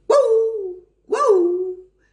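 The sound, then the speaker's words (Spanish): Two drawn-out, weary-sounding dog barks, each sagging in pitch as it fades, separated by a brief pause; fairly loud, and heard alone without any talking. “que le salía como ladrido de perro viejo y cansado, pero con los ensayos mejoró, aunque nadie veía su virtuosismo ni el estudiado esmero con que emitía los ladridos”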